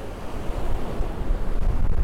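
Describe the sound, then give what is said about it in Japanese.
Ocean waves wash in steadily against the shore, sea water reaching a person's feet, a continuous rush of surf with low rumbling swells and some wind buffeting the microphone, no voices present. “海の水が足元まで来てしまって私の私のハイヒールがもう水浸しになってしまった”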